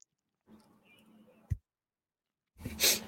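A drawn-out, low voiced yawn, cut off by a short click, followed after a pause by a loud breathy exhale.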